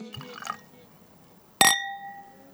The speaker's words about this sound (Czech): Na zdraví. Takhle zní vychlazené šardoné v podkrovním bytě s výhledem na Paříž.